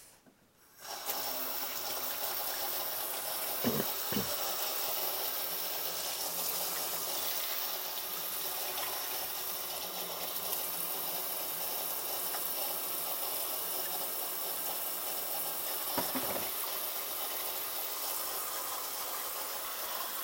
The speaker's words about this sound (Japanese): でその他食器もいろいろありますんで、えー、洗っていこうと思いますさっきに油っこくない食器から洗っていこうかなと思います